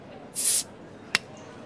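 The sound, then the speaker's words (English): A bottle opening: a brief, bright fizzing hiss followed a moment later by a single sharp pop, clear, with no talking. “Otherwise, just sit back, relax, pop a bottle.”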